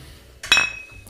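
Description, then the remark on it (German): A single bright clink of glasses knocking together in a toast over beer during a meal, ringing briefly with a high metallic shimmer before fading, fairly loud. “Prost. Prost. Zum Wohl.”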